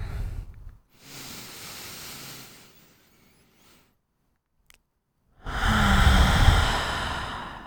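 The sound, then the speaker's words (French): Airy breathing as a group takes a deep breath together: a long inhale drawn in, a pause of near silence, then a fuller, louder exhale rushing out. No talking. “On va reprendre une grande respiration tout ensemble.”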